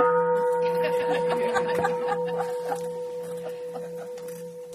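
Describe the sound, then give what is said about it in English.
A bell is struck and its clear, sustained tone rings on steadily, while a group of people murmurs and chuckles softly underneath. “Do something dramatic like ring a bell.”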